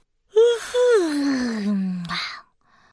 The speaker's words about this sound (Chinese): 不刷牙大魔王正好打了一个大哈欠。哇！一阵好臭好臭的风从他嘴里传出来